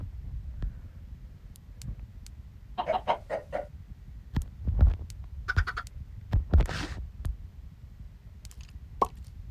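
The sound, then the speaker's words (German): Chickens in a video game cluck in short, scattered bursts, several birds calling over a low, steady background rumble with occasional soft thuds; no one speaks. “Nächstes Mal bauen wir einen vernünftigen Stall für die Hühner”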